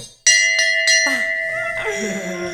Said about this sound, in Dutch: Ja, die mooie koeienbel die staat hier op tafel.